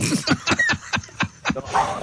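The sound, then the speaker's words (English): A small dog growls and snarls viciously in quick, repeated bursts, fairly loud, with no talking over it, as it attacks radio host James Whale live on Talk Radio. “I must admit, it sounds like quite a vicious dog.”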